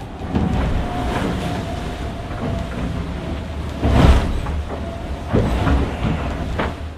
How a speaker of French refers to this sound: On navigue à fond sur le foil, entre 20 nœuds quand on plante dans les vagues et jusqu'à 28 nœuds dans les surf.